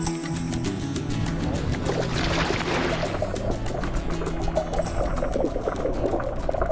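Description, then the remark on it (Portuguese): A diver splashes into the water while diving at Alcatrazes, followed by a steady rush of underwater bubbling and churning that continues to the end, with no voices. “Bom, claro que eu também vou mergulhar, né?”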